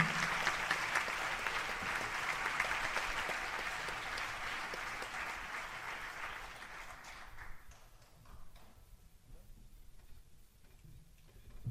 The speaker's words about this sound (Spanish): Vamos a darle un aplauso a Yosu y a Beñat, que están ahí. Sin ellos no somos nada.